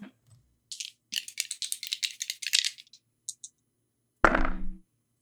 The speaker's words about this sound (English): Roll plus steam. Um, you want to roll some red dice,